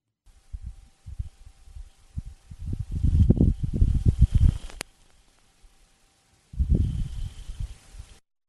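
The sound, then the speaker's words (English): A dust devil whirlwind on Mars roars past in gusty bursts: small puffs at first, then a heavy rumbling surge, a brief lull, and another strong rush of buffeting wind. “Okay, that is a dust devil.”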